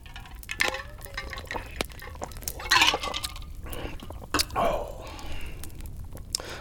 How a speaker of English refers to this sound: Pause as I take a sip of my bevy just to wet my whistle.